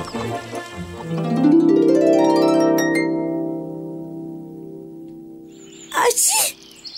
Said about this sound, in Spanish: La jirafa Fita estornudó cuando su mamá la estaba alistando. Creo que te estás resfriando, le dijo apenas la escuchó.